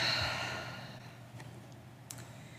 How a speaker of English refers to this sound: Take a slow, deep breath. Hold it and release it. And again, breathing in and breathing out.